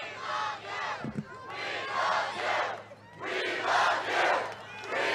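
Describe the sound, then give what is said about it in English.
An extremely large rally crowd roars and cheers in sustained swells, with a brief dip around the middle, loud and continuous with overlapping shouts and a steady low hum underneath. “All right, you can kind of get a vibe of the crowd there, which was extremely large.”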